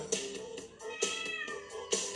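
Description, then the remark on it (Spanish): A cat meows repeatedly, three drawn-out, fairly loud meows spaced about a second apart, with no talking. “con ustedes, el señor Joaquín Doroteo Arango, el gato”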